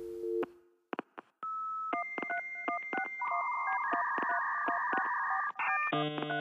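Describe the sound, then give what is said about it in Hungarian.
Electronic music built from dial-up modem and phone-line sounds: rhythmic dialing beeps and sustained tones repeat in a steady pulse, ending in a dense, buzzy chord of modem noise, with no voices. “Mutatom azért, hogy lehet a hétköznapi zene hallgató számára is zenét csinálni ebből a modem hangból.”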